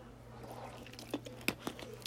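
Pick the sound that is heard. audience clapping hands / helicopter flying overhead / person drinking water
person drinking water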